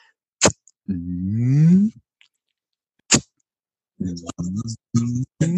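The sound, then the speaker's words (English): A person vocally imitates a wild turkey gobbler spitting and drumming: a sharp spitting puff, then a low, deep humming drum that swells, another spit, and a few shorter throbbing drum pulses, fairly loud. “Drumming is a subsonic sound that it's called a pulmonic puff. It's a sound that gobblers make that they use for communication”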